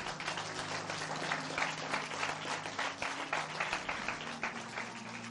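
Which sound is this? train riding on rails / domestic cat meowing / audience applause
audience applause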